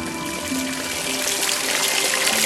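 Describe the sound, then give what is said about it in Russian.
Water gushes out of a rock, forming a spring, in a steady, loud rush, a dense continuous splashing that holds at the same strength throughout, with no voices. “Прямо из скалы вдруг хлынула вода Так возник чудотворный источник”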